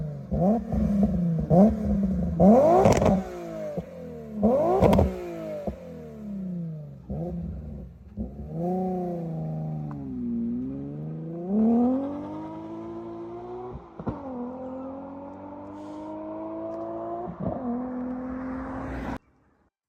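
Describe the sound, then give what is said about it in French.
A Nissan 350Z sports car exhaust revs loudly: several sharp blips at first, then longer sweeping climbs and drops in engine pitch that hold at a steady roar, with no talking. “Ouais, donc super son 350Z, euh, super voiture, plutôt fiable.”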